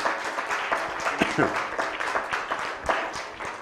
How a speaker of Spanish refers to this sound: Así que Chavachalón en la cuenta de 3123. 1, 2, 3. Fuerte aplauso.